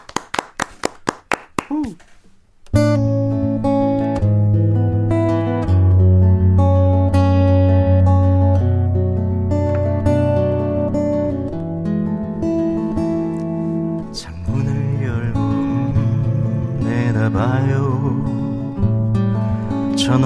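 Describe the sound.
A few sharp hand claps open, then a live acoustic guitar song begins, with strummed chords and a steady, full accompaniment under a singing voice that grows stronger toward the end.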